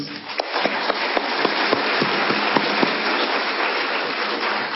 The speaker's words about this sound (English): Thank you very much. Let me give them another round of applause, please.